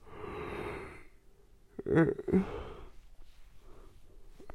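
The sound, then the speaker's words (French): A drawn-out yawn: a long breathy inhale followed by a voiced, groaning stretch in the middle, then trailing off into quiet breaths. “je baille.”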